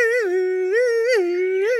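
A loud ambulance siren sounds alone, a steady harmonic tone whose pitch lifts briefly and falls back about every half second, holding an even volume throughout.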